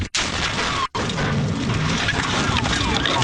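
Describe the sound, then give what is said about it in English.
Dash cam audio of a violent head-on car collision, a woman's vehicle driven into the path of a high-speed chase: a loud, dense burst of impact noise and grinding roar that fills the whole clip, briefly cutting out twice near the start, with no voices. “That is the sound of a head on collision with her putting herself in harm's way.”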